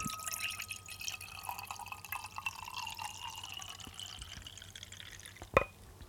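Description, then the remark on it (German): Federweißer wine is poured into a glass, a steady soft trickling with rising gurgle, ending in a brief sharp clink near the end. No one speaks. “Moment, ich schenke eben ein.”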